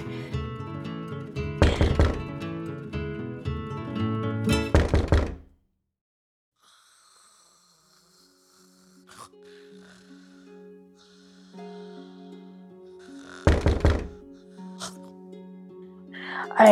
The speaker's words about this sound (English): hear a knock upon my door.